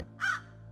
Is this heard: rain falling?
no